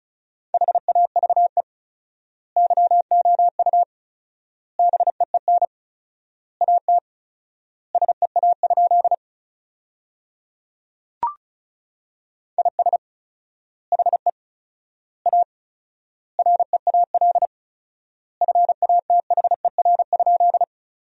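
Fast Morse code at 35 words per minute keyed as a steady mid-pitched tone, sending sentences from the top 300 words with quick dots and dashes grouped into words separated by long, fourfold word-spacing gaps, with one brief click midway. No voices.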